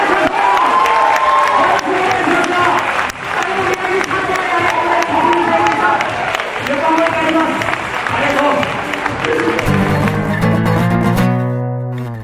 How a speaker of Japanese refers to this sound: では皆さん大きな拍手